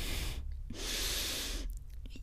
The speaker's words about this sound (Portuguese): E eu vou respirando fundo no seu ouvido enquanto eu vou colocando o meu dedo dentro de você.